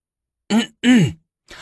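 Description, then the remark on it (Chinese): A voice gives a short cough and then a longer throat clearing, two separate bursts with a falling, gravelly tone, and a faint third sound at the end. “明丽咳嗽一声，清了清嗓子，宣读着”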